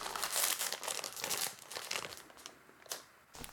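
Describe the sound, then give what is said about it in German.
A bag of gummy bears crinkles and rustles as it's handled, with bursts of crackly plastic noise coming in uneven waves before fading to a couple of brief crinkles. No voices. “Gib mir mal die Tüte.”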